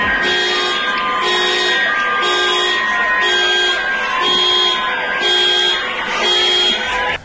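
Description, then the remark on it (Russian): Many car horns honk together in a loud, continuous chorus, with several horns beeping in a steady repeating rhythm over a noisy street background. “Силовики еще при свете дня начинали сбивать дубинками зеркала сигналящих машин, а то, что машины сигналили, это можно увидеть увидеть и услышать на многих видео.”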